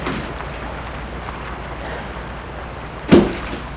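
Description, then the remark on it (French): A car door shuts with a single solid thud near the end as a woman gets out of her stopped car outside a sports shop, against a steady low hum of background noise, with no talking. “Elle arrête sa voiture sort de voiture”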